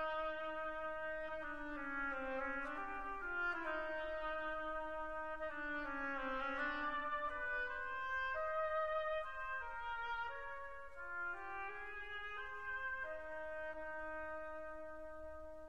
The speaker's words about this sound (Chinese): 那其次呢，由双簧管代表鸭子的声音。